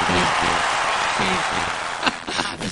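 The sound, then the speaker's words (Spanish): A room full of people applauding, a dense, steady crackle of clapping that stays loud throughout, with a few voices faintly audible underneath near the end. “Un aplauso.”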